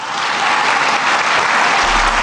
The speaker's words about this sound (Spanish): Bueno, pues ahí está un evento, un evento de esos que le gustan al presidente, donde lo idolatran, donde es un honor estar con Obrador, donde las porras, los aplausos son cada dos minutos.